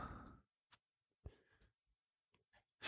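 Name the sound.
clicking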